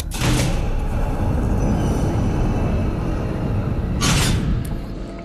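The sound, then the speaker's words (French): A heavy door on an old abandoned spaceship bangs shut into someone's face with a loud impact, followed by a steady low rumble and a second similar burst near the end. “Ah Ah, qu'est-ce qui se passe viens me prendre la porte dans la figure, voilà ce qui se passe.”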